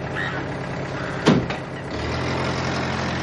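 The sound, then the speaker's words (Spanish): A large bus rumbles as it slows and stops at a spot surrounded by tall trees with bare branches, gives a short sharp hiss of air brakes, then settles into a steady low idle. “El autobús llega a un paraje rodeado por altos árboles de ramas desnudas. Se detiene”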